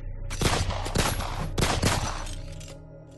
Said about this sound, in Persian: تکس به دست پرنت که از پنجره ماشین بیرون اومده بود چاقو زد و بعد چهار بار بهش شلیک کرد.